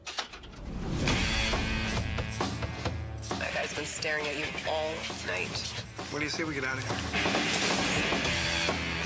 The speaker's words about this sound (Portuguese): Isso aí que você está ouvindo ao fundo é o trailer de uma das principais, talvez a principal estreia do dos cinemas nesta semana, Ted Bundy, A Irresistível Face do Mal, estrelado por Zac Efron.